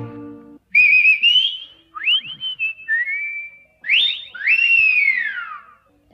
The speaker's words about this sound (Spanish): Otras veces solo hay gritos y chiflitos